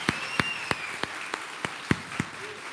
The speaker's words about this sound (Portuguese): Aplauda o Senhor, vem forte.